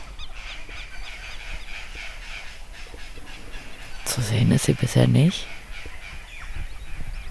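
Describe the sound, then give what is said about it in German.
A loud, harsh crow caw bursts out for about a second midway, from crows in a forest, while a man speaks quietly over a steady outdoor background. “Aber drüben im Wald sind die Krähen ganz schön am Schreien.”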